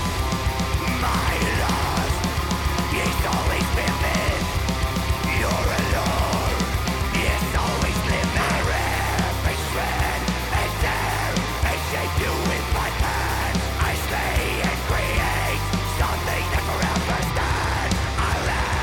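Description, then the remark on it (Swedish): A melodic death metal song plays loudly and continuously, dense distorted guitars and driving drums with harsh shouted vocals filling the whole stretch without a break. “uppfriskande att höra så här melodic death metal som inte urartat i någon sorts Nuclear Blast-skrud.”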